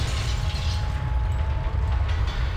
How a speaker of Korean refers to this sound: 아니, 왜 기차가 갑자기 멈추는 것이지? 무슨 일이 있나? 갑자기 멈추는 기차.